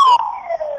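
A loud, steady electronic alarm tone with a slowly falling pitch, sounding alone without any talk. It holds continuously for the whole short moment, with a slight buzzy, telephone-like quality.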